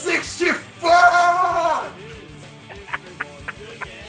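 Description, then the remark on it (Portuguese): A man lets out a loud, excited yell lasting about a second, preceded by a couple of short vocal bursts and followed by quieter murmuring and light clicks. “Se você puder gritar de novo, seria legal pra caralho.”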